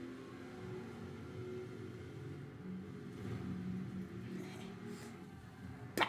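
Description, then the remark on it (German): Steady low engine drone of a Jeep driving through a tunnel, with a boomy, enclosed rumble and faint swells of noise, ending in a brief sharp click. “Ich fahre jetzt einmal hier durch den Tunnel mit dem Jeep.”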